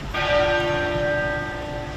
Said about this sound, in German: Während dem Trauerzug hat der Big Ben geläutet und es sind auch Kanonenschüsse ertönt.